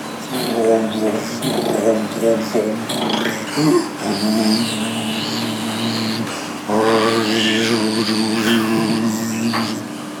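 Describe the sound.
A washing machine in a laundry room runs with a steady low droning hum and a whooshing churn, constant throughout, while voices rise and fall over the machine noise.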